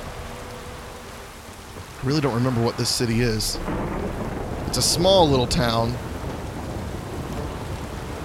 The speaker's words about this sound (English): It is a stormy evening in Blackbough